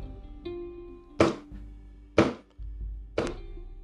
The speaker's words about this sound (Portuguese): Pum, pum, pum, crash. Era um som forte, muito forte, como de um tambor intenso, imenso. Ou seriam trovões, raios?